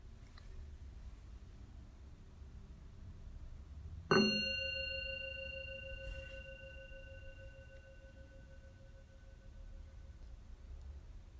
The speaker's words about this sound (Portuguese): Vamos começar relaxando alguns momentos no momento presente, junto com o sino da consciência.